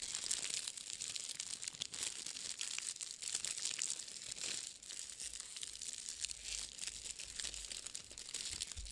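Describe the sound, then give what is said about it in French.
Paper crinkles and rustles continuously, a dense crackling texture with brief sharper crunches as its ends are twisted around a small gift of chocolates. No one speaks. “Prenez les extrémités du papier et entourez-les.”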